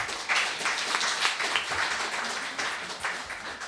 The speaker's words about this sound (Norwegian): Vi kan ta en ny applaus for panelet.